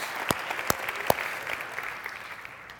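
A crowd of people applauds to thank the man who set up the sound equipment, a dense patter of many hands clapping with a few sharp, louder claps standing out, holding steady and easing off slightly toward the end.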